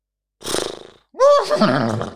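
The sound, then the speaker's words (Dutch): A person imitates a horse's neigh: a short breathy snort, then a loud, wavering whinny with rising and falling pitch, with no talking. “Oké, Oké, en ehm, ik heb voor jou een paard.”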